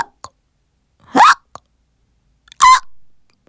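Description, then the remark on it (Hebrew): Two loud, abrupt hiccups, voiced as a little sheep's after it gobbled a carrot too fast, about a second and a half apart, each a short squeaky gulp. Faint clicks and breaths fill the quiet between them. “אני לא יכול לאכול כבשה משעקת.”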